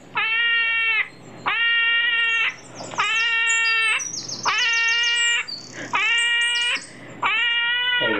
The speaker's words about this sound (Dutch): Waarschijnlijk heb je nog nooit een egeltje gehoord, maar toch maken ze een enorm luid geluid.